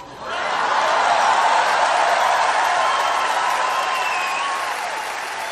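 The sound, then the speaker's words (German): A large live audience claps loudly and continuously, a dense roar of applause with scattered cheers and whoops rising above it, holding steady for several seconds before easing slightly at the end. “War bestimmt ein großer Moment live. Also kann ich mir vorstellen, dass die äh, Zuschauer da bestimmt abgegangen sind.”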